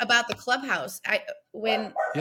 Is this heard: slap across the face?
no